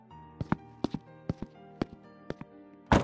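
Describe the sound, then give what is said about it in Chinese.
Several sharp, hard footsteps tap at an uneven pace, then a front door slams shut with a single loud, heavy bang at the end. No one speaks. “大门砰的关上，他英姿笔挺的身影就此消失。”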